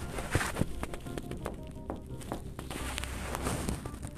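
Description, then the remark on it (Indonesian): A series of sharp knocks on a door, about eight or nine irregularly spaced raps over a soft, steady background hiss, fairly quiet. “dan aku duduk di kasur sendirian dan tiba-tiba ada bunyi ketukan pintu yang sama seperti ini”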